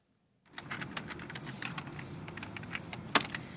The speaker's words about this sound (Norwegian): Noen raske trykk på tastaturet, og plutselig har sønnen eller dattera i huset signert et bindende abonnement på pornofilmer.